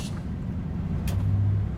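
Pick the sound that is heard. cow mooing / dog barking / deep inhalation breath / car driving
car driving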